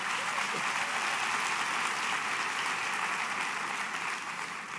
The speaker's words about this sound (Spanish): Aplauda fuerte si eso es para Dios.